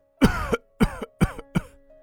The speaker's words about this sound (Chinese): 猛地咳嗽，我摇头。